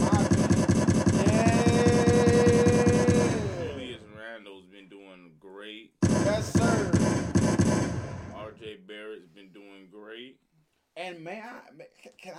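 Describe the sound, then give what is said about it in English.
Two loud bursts of rapid, rattling automatic gunfire sound effects, each lasting a few seconds, played for basketball player Julius Randle, with a man talking in between and afterward. “Let's get you on some gunshots.”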